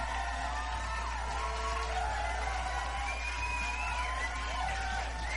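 An audience cheers and applauds in a steady, unbroken wash of sound, with many voices whooping and calling out over a constant roar for about five seconds.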